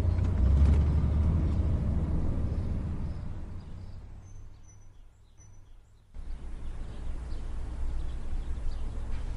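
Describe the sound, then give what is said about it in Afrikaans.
A car engine rumbles outside, loud at first and then easing off before the noise abruptly returns, as Oom Fransjo's car arrives an hour early. Faint bird chirps sound in the background, and no one speaks. “Fransjo se kar is hy.”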